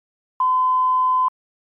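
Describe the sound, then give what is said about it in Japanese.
A single steady electronic beep from an answering machine, one pure mid-pitched tone lasting just under a second, clean and fairly loud, signalling the start of a recorded message from a business client, with silence before and after. “留守番電話に取引先からメッセージが入っていました”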